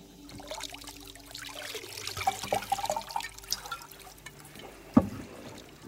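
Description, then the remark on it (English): Liquid pours steadily into a vessel for several seconds, a soft trickling splash with a faint rising gurgle, ending with a small knock of the container near the end. “Pour it in here.”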